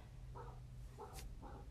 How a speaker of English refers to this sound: pardon my dog. You guys might hear her in the background.